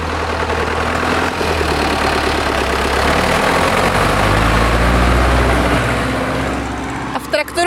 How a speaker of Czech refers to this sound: Teď momentálně tady projede traktor. Ano, manžel jede na pastvinu pro napaječku, takže přiveze prázdnou napaječku, napustí se voda pro kravičky a odveze se zase na pastvinu, aby měli co pít.